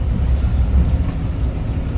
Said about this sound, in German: Jetzt fahren wir durchs Wasser. Jetzt gibt es kein Zurück oder so.